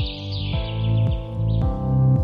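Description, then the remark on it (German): Recorded birdsong, played in by a sound designer, chirps and twitters in a continuous high warble, layered over a steady, mellow musical drone whose low tones shift every half second or so. No one speaks. “Gib uns nochmal ein bisschen Vogelgezwitscher, wenn es denn so gut tut.”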